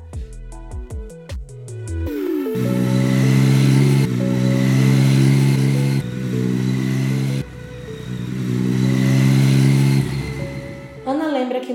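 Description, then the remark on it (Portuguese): A motorcycle engine hums loudly and steadily for about ten seconds while riding through the streets of Tapajé, a town in the interior of Ceará. Its low droning pitch shifts a few times as if changing gears before easing off at the end. “Ana relata como ele adorava andar de motocicleta pelas ruas de Tapajé.”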